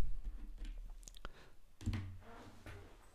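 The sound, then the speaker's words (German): A few sharp plastic clicks and light handling noises as a pen that stopped working is put down and another picked up, with quiet shuffling between the clicks. “so, bin ich wieder, ich muss einmal den Stift tauschen, der macht es nicht mehr.”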